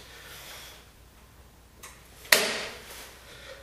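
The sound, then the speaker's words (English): A single sharp mechanical click from a washing machine door lock engaging after the start button is pressed for a rinse and spin cycle, fairly loud, preceded by a fainter tick, with a quiet background hum and no talking. “That's the Locky here. It engages.”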